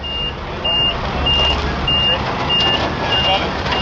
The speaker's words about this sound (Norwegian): En lastebil rygger inn på en av markedsplassene i Juba. Den har med seg en 3000 liters tank med vann, som skal gjøre det enklere for innbyggerne å vaske seg på hendene under pandemien.